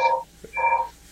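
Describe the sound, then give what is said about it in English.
A telephone rings in two short electronic bursts separated by a brief pause, a steady tonal trill at moderate volume with no voices over it. “Yeah, we'll let we'll let that ring off.”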